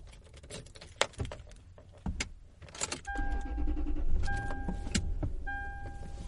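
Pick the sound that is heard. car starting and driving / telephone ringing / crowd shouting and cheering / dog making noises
car starting and driving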